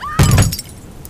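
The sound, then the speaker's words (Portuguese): A coffee pot smashes into pieces with one sudden, loud crash, bright shards scattering and tinkling briefly before fading into quiet. “Foi a cafeteira quebrada em mil pedaços.”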